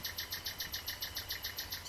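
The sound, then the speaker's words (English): A single bird sings loudly and alone, repeating a bright, high note in a fast, steady rhythm, about seven notes per second, over faint low background hum. “you've just got um, a, a, very loud uh, bird which just serenades.”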